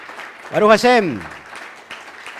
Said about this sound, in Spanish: ahora sí un fuerte aplauso poderoso para el Eterno primero y después para todas las naciones.